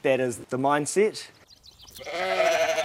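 Sheep bleat at the Cabot Lodge, two hours from Queenstown, surrounded by mountains and lush green meadows: three quick, quavering calls in a row, a brief pause, then a longer, wavering bleat over faint outdoor background noise.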